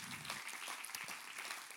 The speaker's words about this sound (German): Lass uns äh, Ihnen einen herzlichen Applaus geben.